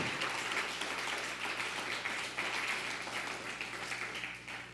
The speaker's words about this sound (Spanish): un fuerte aplauso. Vamos a darle a, a Honduras.